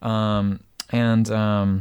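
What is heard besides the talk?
camera shutter clicking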